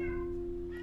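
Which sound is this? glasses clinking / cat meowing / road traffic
cat meowing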